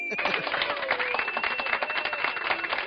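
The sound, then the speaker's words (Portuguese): Steady, dense applause from an audience fills the whole moment, a loud crackling wash of many hands clapping at once, with faint voices and a brief whoop mixed in. “Palmas pra ele.”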